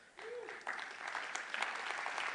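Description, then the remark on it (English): An audience applauds together, many hands clapping in a dense, steady patter that holds at a moderate level throughout, with no one speaking over it. “now, that's encouraging to me that you're clapping because not everybody is.”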